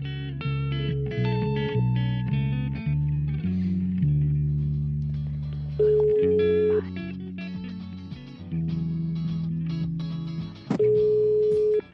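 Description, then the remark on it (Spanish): A telephone ringback plays while a call is placed: a continuous, fairly loud electronic tune of steady sustained tones shifting in pitch, with no voices over it. “así que bueno, a ver si nos coge el teléfono y a ver cómo se va a organizar estas vacaciones y si nos da alguna recomendación.”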